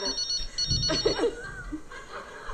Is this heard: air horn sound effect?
no